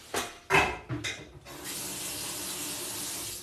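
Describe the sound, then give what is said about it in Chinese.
A few quick clunks and splashes, then a tap turns on and water runs steadily into a pot, being filled to soak after a meal, with an even, rushing hiss that continues to the end. “收拾战场啊，然后垃圾收一收，然后锅拿过去泡着。”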